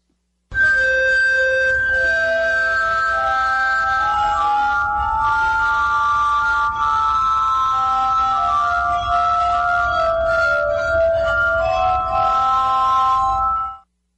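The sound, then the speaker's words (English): Sustained, pure ringing tones glide and overlap in a slow melodic line, glassy and bell-like, played steadily for about thirteen seconds with no voices: a glass harmonica played by an expert, performing a Mozart piece. “The glass harmonica being played by an expert playing the Mozart piece.”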